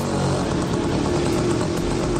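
A motorcycle engine sound effect runs steadily and loudly, a continuous throaty rumble with a slight pulsing flutter and no voices.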